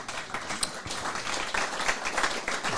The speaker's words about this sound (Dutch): Ah, dit is wel een goed, goed applaus.